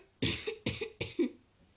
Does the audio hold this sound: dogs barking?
no